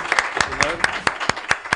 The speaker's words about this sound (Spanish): Un fuerte aplauso, eh, los que estamos aquí.